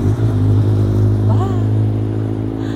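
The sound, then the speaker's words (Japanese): A motorcycle carrying two riders rumbles past, its engine loud and steady with a low droning tone that fades slightly toward the end, with no talking over it. “バイクが今横通ったんですけど2人乗りでしたね可愛いですね”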